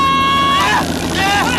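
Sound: helicopter overhead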